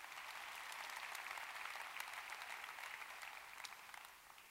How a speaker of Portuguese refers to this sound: Quem pode dar um aplauso ao Senhor Jesus nessa manhã?